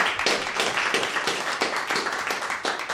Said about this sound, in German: Und ich glaube, auch das ist ein kleiner Applaus fürs Kurt-Magazin.